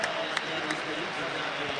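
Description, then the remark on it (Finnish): The crowd at Nokia Arena applauds during the Ilves versus Sport game to thank Risto Duffa for his career, a steady dense wash of clapping with a few sharper claps standing out, sustained at an even level throughout. “7.39 ensimmäistä erää pelaamatta, Ilves Sport 0-2 lukemissa ja aplodit Nokia Arenalla johtuu siitä, että Risto Duffaa kiitetään hänen urastaan”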